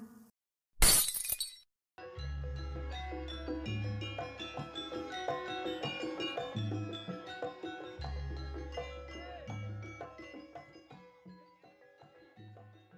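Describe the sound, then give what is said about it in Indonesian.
A light bulb shatters in one sharp, loud burst of breaking glass lasting about a second, followed after a short pause by steady music with a deep pulsing bass. “Tiba-tiba lampu pecah dan keadaan seperti kemarin malam yang dialami Vika.”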